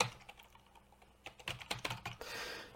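Quick, irregular keyboard typing, keying in Revelation 9, a flurry of sharp clicks that starts sparse and grows busier, ending in a softer rustling wash; no one speaks.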